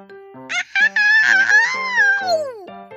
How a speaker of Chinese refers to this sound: 发现小怪兽变成了一只好大的秃鹰。吼吼！嗷嗷！它的尖叫声还非常可怕。